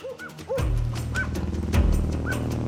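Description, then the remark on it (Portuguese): A firefighters' dog trained to locate victims in forest rescues gives several short, high yipping barks at irregular intervals over a steady low rumble of background noise, moderately loud. “Desta vez, os bombeiros levaram um cão treinado para localizar vítimas nos resgates em matas.”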